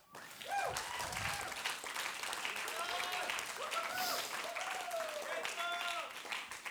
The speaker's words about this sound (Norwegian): Og så kan dere gi en solid applaus.